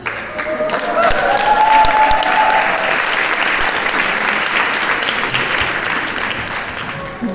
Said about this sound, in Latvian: Vakars noslēdzas ar skaļiem aplausiem un uzgavilējumiem, bet vispirms, kā piedzīvoto Vāgnera namā vērtēja skatītāji.